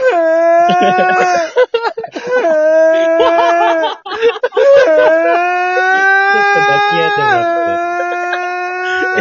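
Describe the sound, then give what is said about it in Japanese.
A voice imitates a motorbike engine with a long, loud, buzzing drone that climbs in pitch, drops and climbs again through several gear-shift steps, with only brief breaks for breath. “バイクバイクだった”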